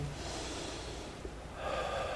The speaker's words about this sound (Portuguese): Por isso, um bom exercício para você estar em estado de presença é você então começar no processo de respiração